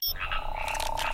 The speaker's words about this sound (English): It's the sound of a frog trying to whistle while eating peanut butter. Huh. What does that sound like? Like this.